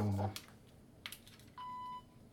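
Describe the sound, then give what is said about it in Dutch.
A talking reading pen scans a sticker label on a jar: a few light plastic clicks and taps, then a single steady electronic beep lasting about half a second. “Maar dan kan ik je even laten luisteren.”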